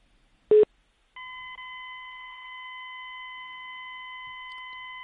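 A telephone call being dialed to a guest, a call that fails to connect: one short, sharp beep, then a steady, unbroken electronic tone that holds for about four seconds. No voices are heard.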